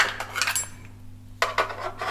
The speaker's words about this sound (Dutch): Met het bestek. Oh, weet je wat heerlijk is? Als ik normaal gewoon mijn bestek kan gooien. Gewoon heel, heel, heel snel gaat het dan. Maar nu gaat het niet zo snel. Maar nog maak ik zoveel herrie voor iemand die wil slapen.